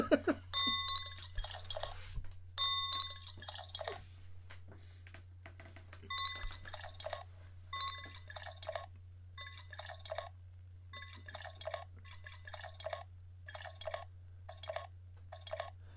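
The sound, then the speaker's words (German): Glass clinks a few times near the start, then Urbanus Festmärzen beer pours and glugs in bursts from a bottle, with more faint clinks, over a steady low hum. “Und jetzt äh, fahren wir gleich an äh, Urbanus Festmerzen zu trinken. Moment. Das hört ihr jetzt gleich.”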